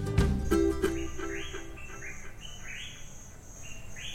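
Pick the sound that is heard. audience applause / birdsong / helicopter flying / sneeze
birdsong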